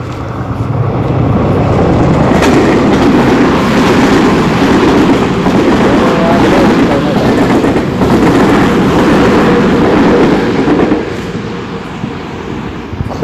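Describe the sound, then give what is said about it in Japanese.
A train rumbles past on railway tracks beside someone walking along the line, a loud sustained roar of wheels and engine that swells quickly, holds steady for several seconds, then eases off slightly near the end. “すいません、ちょっとしばらく線路沿いを歩かせていただきます。”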